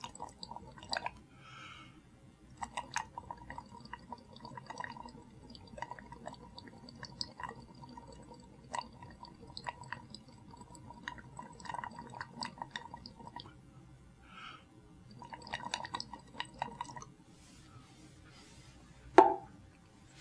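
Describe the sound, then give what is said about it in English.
Bubbling and plopping sounds of a person's breath from the lungs blown through lime water several times in succession, coming in repeated bursts with short pauses, fairly soft, ending with a sharper splash. “if I throw the air from my lungs through the lime water several times in succession, you will see how white and milky the water is getting, showing the effect which expired air has upon it.”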